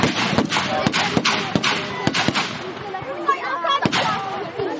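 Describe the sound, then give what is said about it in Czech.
Gunfire from a Czech army dynamic demonstration by an infantry company of the Liberec active reserve at a public open day on the island in Semily: a string of loud, sharp shots cracking out at irregular intervals, about eight or nine, over a steady murmur of crowd noise and voices. “Bylo to dobrý, jak tam stříleli, ale ty kulky jsme si nestihli pozbírat”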